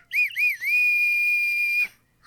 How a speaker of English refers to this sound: I also got a whistle. we, just for this occasion.